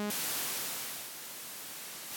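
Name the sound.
white noise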